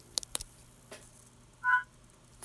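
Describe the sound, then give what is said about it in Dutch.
A few small, sharp clicks, like a phone's side button being pressed, then a short soft electronic tone as the smartphone locks. Quiet, with no talking. “Ik, ont- ik vergrendel mijn telefoon”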